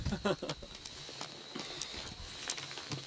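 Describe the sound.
A campfire crackles after more wood was added because the fire had grown low, with sharp irregular pops and snaps scattered over a soft steady hiss of burning, and a brief murmur of voices near the start.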